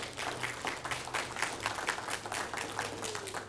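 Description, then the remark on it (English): An audience at a church applauds steadily for the people who led an event: a dense, continuous patter of many hands clapping at once, moderately loud, with no voices standing out. “I know they did not do it for applaud, but I think they deserve one.”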